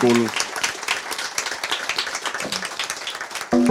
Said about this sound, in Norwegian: Og ikke minst tusen takk for at dere ville være her med oss i dag på eh, semesterets siste møte. Så gi dem en varm applaus og vel hjem.